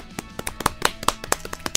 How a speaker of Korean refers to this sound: 박수 소리가 작아요. 그러니까 한 명이 빠지니까 그 박수 소리가 작네요.